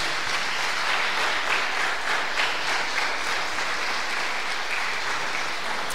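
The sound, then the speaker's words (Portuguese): An audience applauds the Lord during a church sermon, a dense wash of many hands clapping at once that holds at an even, fairly loud level for the whole six seconds without a pause. “Você pode aplaudir ao Senhor por isso, aleluia.”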